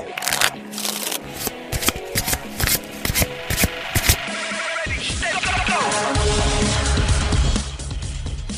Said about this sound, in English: It's time to shuffle up and deal.